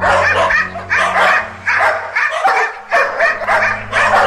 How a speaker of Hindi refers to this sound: अंधेरे में कुत्तों की चमकती हुई आंखें और गुर्राने की आवाजें किसी पत्थर दिल को भी डरा देती